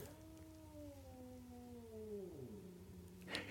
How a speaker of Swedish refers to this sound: Är det en katt utanför nu? Ja. Pratar de med varandra? Ja.